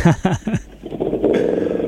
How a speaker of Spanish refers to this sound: Mire, escuchen el ruido de un auto. Ese auto puede ser el de mi tío en la década del 80.